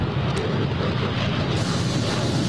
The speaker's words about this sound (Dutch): hey, ik heb nog een geluidje van de F35. Nou, om, even straaljager nieuws waardig af te sluiten. Waardig Dus dit is dus van het F-35 demo team. Duurt maar 12 seconden, dus eh, ook wij kunnen dat hebben.